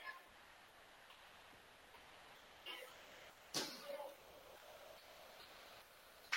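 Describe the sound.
A sharp, loud slap of a Waterloo East basketball player's hands slamming against a chair before he takes a seat on the bench, late in a game against Ames, cutting through a steady hum of crowd noise, with a softer thump just before it and murmuring voices underneath.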